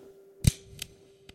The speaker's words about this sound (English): He fired a couple of more times.